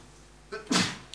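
A single sharp sneeze, preceded by a brief intake of breath, then a forceful burst that quickly trails off into quiet.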